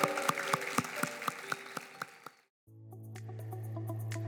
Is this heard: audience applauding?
yes